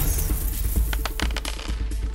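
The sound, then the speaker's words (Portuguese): Coins jingle and clink in a quick, irregular cluster of bright metallic taps over about two seconds, fairly clear above a low steady rumble, with no talking. “Barulhinho de moedas e a Xoxana desapareceu.”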